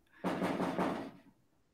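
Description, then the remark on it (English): A quick burst of loud, rattling bangs on a garage door, four or five rapid knocks lasting about a second, with no one speaking. “knocking on your garage door”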